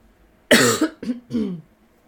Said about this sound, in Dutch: Pardon als ik nu in je oor aan het kuchen ben.